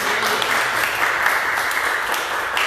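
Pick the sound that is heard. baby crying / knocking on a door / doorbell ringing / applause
applause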